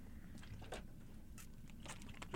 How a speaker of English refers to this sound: You want to take a sip of water before we get started? Gotta stay hydrated.